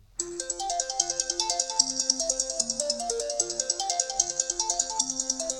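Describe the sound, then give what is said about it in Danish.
An owl-hoot ringtone of a phone call plays on its own, a quick, repeating pattern of bright tonal notes ringing steadily and fairly loud for several seconds with no talking. “Men øh, når nu jeg ringer til dig, så bliver det en, øh, det bliver en nathugle.”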